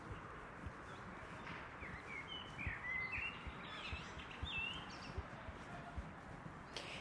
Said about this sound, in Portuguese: Aí caminhei um pouco pelo pedaço de paralelepípedo e entrei nesse parque aqui do Humboldt High. E aqui tem mais pássaros e mais felizes também.